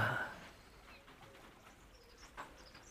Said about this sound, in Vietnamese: tiếng chim hót